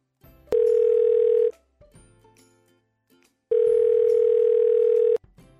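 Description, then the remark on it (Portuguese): Two loud, steady telephone tones of an outgoing call being placed, each about a second long and separated by a pause of roughly two seconds, ringing through the handset. No one speaks. “Mas agora sem mais enrolação, vamos ligar”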